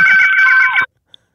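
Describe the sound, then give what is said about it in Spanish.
A phone rings loudly with an incoming call to the call-in show Llama ya perro, a steady high electronic trill with a fast warbling pulse, lasting under a second before it cuts off abruptly, followed by silence and a tiny faint click. “Vamos a contestar esta llamada”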